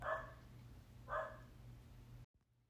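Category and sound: animal, dogs barking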